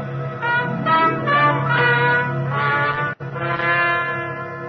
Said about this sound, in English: Then late one night, as I was getting ready for bed, the bells of my apartment rang.